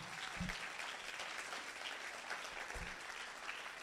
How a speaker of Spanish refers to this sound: Vamos a dar un aplauso fuerte al Señor si usted lo cree.